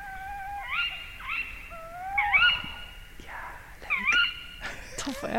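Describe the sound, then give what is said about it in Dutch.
Female tawny owl calls outdoors among old trees: a run of sharp, shrill kewick cries, about six in quick succession, some with a wavering hoot-like tone, against a faint background hiss. “En dan dat kiwi kiwi van het vrouwtje erachteraan.”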